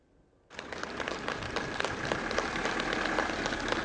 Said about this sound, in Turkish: Biri 8,5, diğeri 13 aylık iki bebek koronavirüsü yenen en küçük hasta oldular. Taburcu edilirken alkışlarla evlerine uğurlandılar.